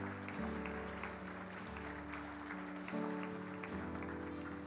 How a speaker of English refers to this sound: Let's give the Lord Jesus Christ a hand clap today.